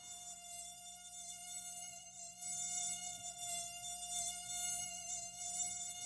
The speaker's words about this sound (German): Ja, klar. Oh, furchtbarstes Geräusch der Welt, Mücken, ne? Ganz ja. genau. Die hörst du aber.